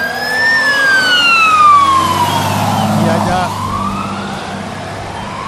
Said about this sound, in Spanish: y haya una falsa alarma por la que llamaron a los bomberos, llegaron tres máquinas de bomberos. Y bueno, no creo que sea realmente una falsa alarma, pero sí algo mucho más fácil de controlar.